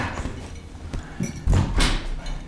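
A door swings shut with a few sharp knocks and a low, heavy thud as it closes, against a faint background rumble.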